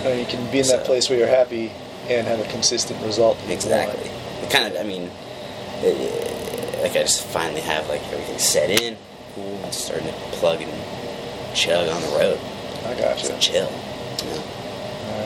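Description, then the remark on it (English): A space heater runs in the background with a steady, low fan-like whir, constant throughout while two people chat over it in the foreground, in a room set up as a kung fu movie room. “Um, if you can hear my heater in the background, hopefully it's not drowning out our voices.”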